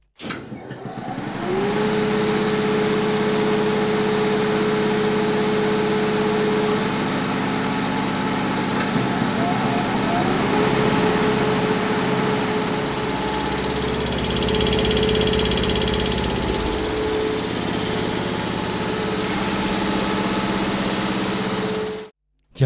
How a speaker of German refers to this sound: Also, um den Motor zu starten, brauchen wir Druckluft. Und unten im Keller haben wir zwei große Verdichter stehen und das war das Geräusch der Verdichter.